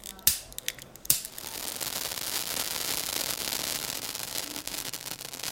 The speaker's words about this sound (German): Jetzt hat es gebrannt und geblubbert, gezischt.